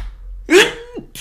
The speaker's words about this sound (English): Oh man, bless you, bless you. I'm in here, bro, sneezing and stuff.